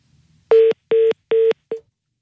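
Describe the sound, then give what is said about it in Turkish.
A telephone busy signal after a hang-up: three evenly spaced electronic beeps and the start of a fourth, loud and clear with no voices. “Kapattı.”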